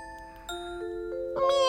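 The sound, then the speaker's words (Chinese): A cat gives a single short meow toward the end, rising in pitch and fairly loud, after a soft, steady tonal hum. “喵！平时我听不懂猫的话，不过今天的我竟然听得懂。”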